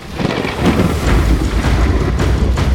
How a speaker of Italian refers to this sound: In poco tempo una tempesta si abbatte sul gommone. La barca ondeggia paurosamente,